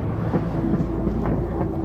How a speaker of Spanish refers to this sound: Con mi paraguas en mano, caminaba rumbo a mi casa, bajo una masa de nubes negras llovizna, ventarrones y truenos que anunciaban la gran tormenta que se venía.